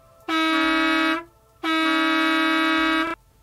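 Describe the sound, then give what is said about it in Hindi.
A school bus pulling up at a bus stop honks its horn twice, two loud, sustained blasts, each a little over a second long, with a short pause between them and no talking. “तभी बस का हॉर्न सुनाई दिया”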